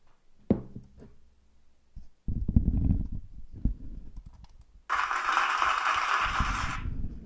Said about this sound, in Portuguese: Estou a adorar este sound effect das palmas, desculpem.